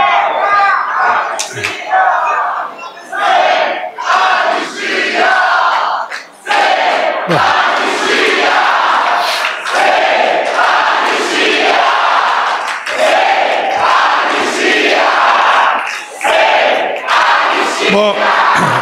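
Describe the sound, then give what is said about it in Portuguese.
A loud crowd of homeless people's movements shouts and cheers continuously inside the palace, many voices overlapping in a dense roar with rhythmic surges and chant-like bursts, occasional sharp smacks cutting through the din. “É a plateia de movimentos de moradores de rua que tava soltinha no palácio.”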